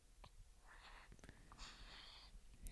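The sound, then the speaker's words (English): A quiet, drawn-out yawn comes as two airy, breathy exhalations, faint, with a few soft clicks around them and no talking. “So she was just yawning.”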